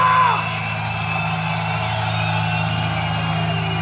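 A large concert crowd in Lyon yells and whoops in a sustained roar of cheering for the band playing that night, loud and dense throughout, with a strong low hum underneath and no clear pauses.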